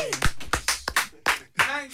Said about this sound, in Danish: Jeg ved ikke, om klapsalven kom ordentligt med, fordi at, øh, mikrofonen er så langt væk fra, hvor vi står. Skal vi lige klappe en til, bare lige? Ja.